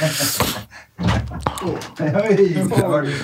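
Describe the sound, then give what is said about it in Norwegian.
A door swings open with a heavy, low thunk and a sharp knock right after, nearly hitting a person standing just outside in the forehead, followed by people talking loudly over the settling noise. “Joakim Skage sto klar, holdt på å få døra rett i panna”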